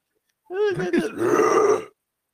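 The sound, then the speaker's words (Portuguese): A voice imitates a death metal growl: a single loud guttural vocalization about a second and a half long, starting with a wavering moan and turning into a raspy, distorted roar. “eu penso em death metal, né, cara? Imagina”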